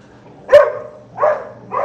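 A dog named Rasta barks three times in short, spaced bursts after the doorbell rang, the first sharpest and loudest, the next two slightly softer, with no one talking.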